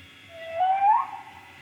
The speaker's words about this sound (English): What, what do you hear there? Did you hear the baby goats? Oh, I heard something crazy.